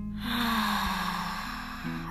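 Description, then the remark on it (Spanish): A long, steady breath pushed out through the mouth during a guided breathing exercise, an airy rushing sound lasting about two seconds, fairly loud over a low, sustained musical drone. “Retén, exhala.”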